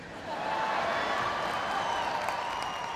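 An audience applauds in a dense, steady wash of clapping that swells in quickly and holds at an even, fairly loud level throughout, with no one speaking over it.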